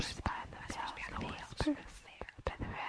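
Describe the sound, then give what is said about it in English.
Several breathy, eerie whispering voices, the whispers behind the veil in the Department of Mysteries execution chamber, overlap in a hushed, ghostly murmur, with sharp sibilant bursts and no clear words, layered against a faint airy hiss. “Okay, this week's Canon Conundrums about the whispers behind the veil.”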